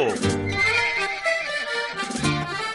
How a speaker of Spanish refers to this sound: Al tratar de poner el freno al caballo, el animal lo sintió. Se puso arisco, pateó, brincó y ni siquiera dejó que el abogado pudiera ponerle una mano encima.